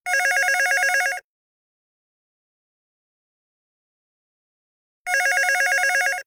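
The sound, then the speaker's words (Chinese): A telephone rings in two loud bursts of rapid trilling bell tone, each lasting about a second, separated by a few seconds of silence. No one speaks. It is the mysterious call said to ring around three in the afternoon in the office of the Ishinomaki disaster reconstruction centre, Japan. “根据这个记者奥叶修尔的说法，石卷市的灾后中心从成立以来，每天下午三点钟左右，必然会有一通电话响起。”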